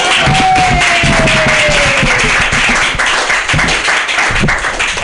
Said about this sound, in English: Uh, your next comedian is a San Francisco native, and I just don't think he's that old. I, one of the youngest souls that I know. So start clapping right now for